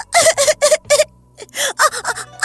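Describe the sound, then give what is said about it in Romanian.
A loud bout of sobbing by a girl: a rapid series of breathy, choked gasps with a whimpering pitch, coming in a halting rhythm of short bursts, no words spoken. “Acum îmi este dor de mama și de tata Nu mai plânge Și eu vreau să se trezească Plânsul nu cred că îi poate ajuta”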